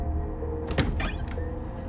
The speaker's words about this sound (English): Leon Borstein looks up as the front door opens.